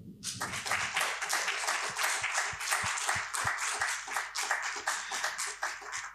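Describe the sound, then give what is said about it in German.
Steady audience applause: many hands clapping in a dense, continuous patter that holds at a fairly even loudness for several seconds, with a few sharper individual claps standing out. “Einen großen Applaus für Nora Eckhardt.”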